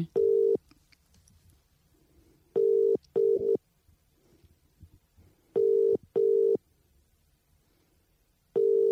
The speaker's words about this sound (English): I'm going to phone them in right now, and we'll uh, yeah, read from the script and get into it. Phoning in, racking up the phone bills today.